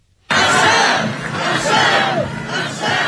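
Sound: crowd shouting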